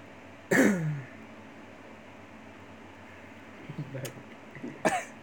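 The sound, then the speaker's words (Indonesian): A single loud, raspy cough bursts out at the start, followed a few seconds later by two shorter, fainter coughs against a steady low hum of background noise. “Nah, ini lagi sudah batuknya.”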